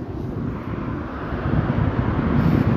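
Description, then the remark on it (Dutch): A steady, loud low rumble of traffic on a road swells slightly as cars drive past, with no voices, just continuous engine and road noise. “Ik hoor je niet, er rijden auto's langs.”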